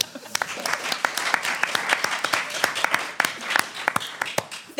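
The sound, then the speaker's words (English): An audience applauds steadily, many hands clapping in a dense, crackling wash with sharper individual claps popping through, sustained at a fairly even level throughout. “I would like you to applaud to the level of your appreciation of this apocalyptic scenario.”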